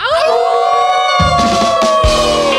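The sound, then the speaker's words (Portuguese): Several people howl together like wolves, long sustained high wavering cries that overlap and hold for a couple of seconds, loud and continuous, with a few rougher shouts mixed in. “É a uivada dos nossos alcateianos.”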